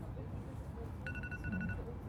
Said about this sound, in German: das ist mein Alarm, so.